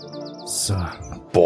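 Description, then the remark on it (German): Birdsong chirping with a quick repeating warble and bright high trills, fairly loud, with a short louder burst near the end; no speech. “Und ich würde sagen, ich, ja, jetzt ziehe ich mal ein bisschen das Vogelgezwitscher hoch, was ihr jetzt hört”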